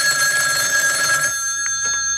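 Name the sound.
telephone ringing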